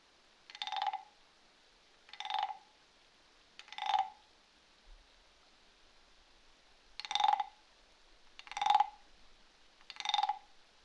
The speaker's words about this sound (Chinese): 好可爱的青蛙叫声呀！你耳朵开始专注的倾听它们的叫声，你也开始在心里默默的数着，这里到底有几只小青蛙在你的身边？